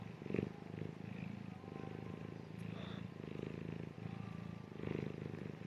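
cat purring

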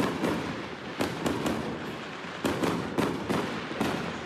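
fireworks exploding

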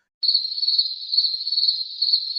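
crickets chirping at night

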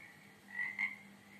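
many toads croaking

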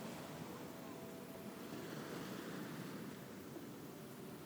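ocean waves crashing

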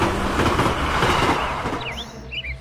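train arriving

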